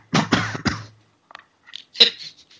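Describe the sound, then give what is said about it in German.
Three quick, forceful coughs burst out in rapid succession, followed by a few softer rasping throat noises and a short sharp catch of breath. “Du brauchst keinen Hustenanfall.”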